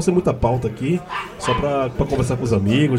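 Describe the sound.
A dog in a bar barks in the background, short yips and bow-wows scattered under continuous conversation that stays louder in the foreground.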